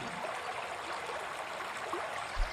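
A river stream, where someone went fishing, flows steadily, a continuous bright rush of water with small babbling ripples, even in loudness, with a brief low thump near the end and no voices.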